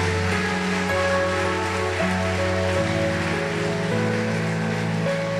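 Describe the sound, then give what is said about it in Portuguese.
An audience applauds God at a preacher's call, a dense, continuous wash of clapping lasting several seconds, with sustained keyboard chords changing underneath. No one speaks. “Se você entende isso, aplauda esse Deus maravilhoso, soberano e tremendo.”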